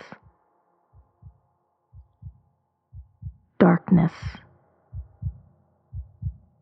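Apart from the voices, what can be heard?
heartbeat thumping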